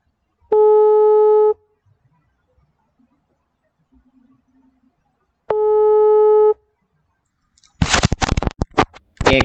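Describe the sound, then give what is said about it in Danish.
A telephone ringback tone sounds twice as an outgoing call for a telephone interview connects, each long steady buzzing tone about a second, separated by a silent pause, followed by crackly handset noise as the line is picked up. “Jeg har aftalt, at øh, jeg ringer”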